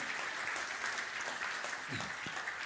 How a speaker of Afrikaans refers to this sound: Beleef Noord-Midrand se aanlyn diens kerkfamilie kan ek vra met 'n hande klap. Kom ons verwelkom ook net ons aanlyn gehoor.